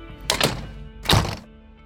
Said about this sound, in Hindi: वापस आई main door auto lock हो गया था खट से